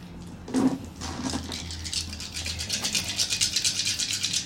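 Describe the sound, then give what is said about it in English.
Dice rattle, starting with a soft knock and building into a quick, steady clatter of small hard pieces shaken together, with a low hum underneath. “There's your dice.”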